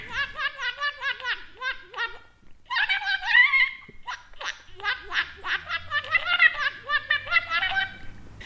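A water-filled radish whistle being blown, making rapid, bubbly warbling trills in a high register, played in loud bursts with brief pauses between phrases.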